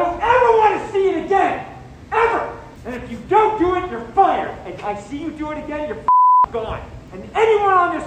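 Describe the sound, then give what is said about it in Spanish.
A man shouts angrily and continuously at his film crew during a movie shoot; near the end a single steady censor bleep briefly replaces his voice, masking an insult, before the shouting resumes. “Bueno, estos pitidos que escuchamos son insultos a su equipo de rodaje.”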